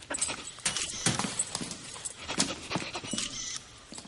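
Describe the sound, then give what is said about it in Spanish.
A dog sniffs and pants, with quick breathy bursts of air repeating in an uneven rhythm over about four seconds, as it sniffs machinery that an agent points out to it. No one speaks. “El perro huele lo que le indica el agente.”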